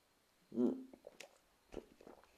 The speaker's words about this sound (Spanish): sorbo de agua.